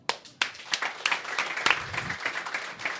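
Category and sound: crowd, applause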